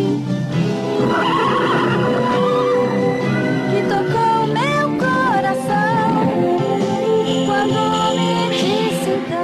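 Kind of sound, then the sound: animal, horse neighing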